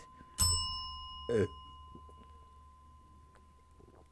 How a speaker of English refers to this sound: Don't you hit the bell?